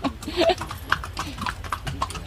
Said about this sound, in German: Auch schön, jetzt galoppieren hier die Pferde vorbei.